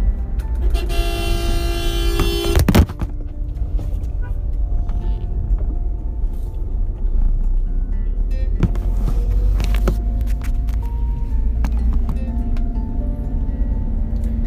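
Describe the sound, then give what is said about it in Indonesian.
A steady low engine drone and road rumble fill the cabin of a moving car, with a horn tooting briefly near the start and a few sharp knocks along the way. “sorry banget mungkin kalau kedengaran suara derungan mobil ataupun suara jalan karena ini aku record ada lagi di mobil lagi di perjalanan gitu loh”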